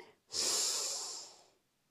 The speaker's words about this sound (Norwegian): Så vi begynner med å puste rolig inn og ut. Så da starter vi med å puste inn